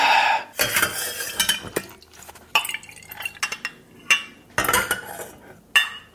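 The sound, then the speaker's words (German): Glassware clinks and taps against a ladle while punch is poured into double-walled punch glasses, a series of bright, irregular knocks and splashy pours with short pauses between them. “Dann nehme ich schon mal die Kelle. Ja. Und ich reiche die Gläser.”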